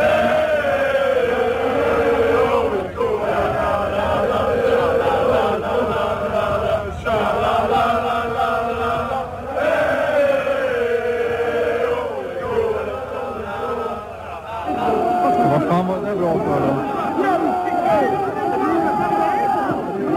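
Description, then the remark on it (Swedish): A large crowd of football supporters chants in unison in a stadium at a 1991 match between GIF Sundsvall and AIK, loud and continuous for about twenty seconds, with a rising and falling sung melody over a dense roar of voices. “För att inte tala om supporternas reaktion.”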